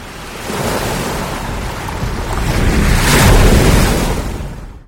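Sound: ocean waves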